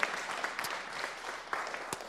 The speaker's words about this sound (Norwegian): Ja, det kan du klappe for.